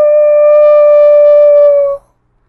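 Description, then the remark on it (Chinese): An old wolf lets out one long, loud howl, holding a steady high pitch for about two seconds before cutting off abruptly into silence. “嘿嘿嘿嘿，肥嫩嫩的羊儿，我馋了好久了。嗷！”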